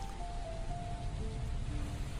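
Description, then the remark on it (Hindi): A steady, even hiss of rain falling without pause, with a few faint sustained tones drifting above it and no voices. “अब यहाँ इस पल में मेरी दुनिया ठहर सी गई अब बस तुम मैं और बरसता पानी बाकी सब कुछ शांत”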